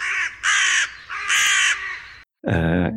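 Harsh, raspy cawing from several carrion birds feeding on decaying corpses amid rubble in a castle courtyard, loud, calls overlapping in bursts with a brief pause before another caw, no voices present.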